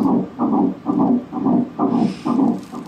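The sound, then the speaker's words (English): A fetal heartbeat on ultrasound at about five to six weeks: rapid, steady whooshing thumps, around seven beats in quick rhythm, loud with a muffled, swishing quality and no voices. “That is a baby's heartbeat. You're hearing there that thumping sound.”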